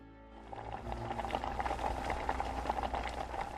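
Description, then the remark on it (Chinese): Water at a rolling boil in a pot in a kitchen, into which pieces of dough are torn off and dropped to make noodle-slice soup, a steady bubbling rumble broken by dense small pops and gurgles. The level is constant and moderate, with no voices. “看着母亲揪下面片扔进滚沸的水里”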